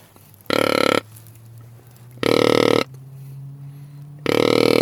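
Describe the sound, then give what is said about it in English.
Three loud, deep buck grunts from a deer grunt call, blown with a hand cupped over its end to make the grunt loud and longer, each about half a second long and spaced a couple of seconds apart, with a faint low hum in the quiet gaps. “And if I cup my hand on the end of my grunt call to make the grunt sound loud, longer, this is really deep.”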